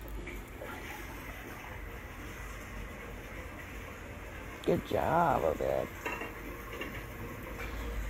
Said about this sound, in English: he's washing dishes and and uh, other kids are helping.